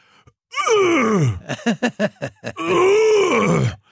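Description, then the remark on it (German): A person vocally imitates loud tortoises moaning while mating: a long falling groan, then a quick series of short grunting pulses, and another drawn-out, wavering moan. “die haben so laut gestöhnt, diese Schildkröten, dass die ganzen Mütter im Umkreis den Kindern die Ohren zugehalten haben und mit denen rausgegangen sind.”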